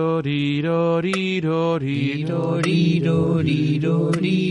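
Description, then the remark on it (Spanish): Slow, evenly spaced metronome clicks set to largo tempo, roughly one every second and a half, tick beneath louder sustained melodic tones from an instrument playing a slow tune. “Entonces sería, vamos a escuchar música metrónomo, lo tenemos ahora marcando largo.”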